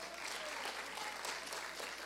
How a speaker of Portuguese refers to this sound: Vamos dar uma salva de palmas para o Senhor?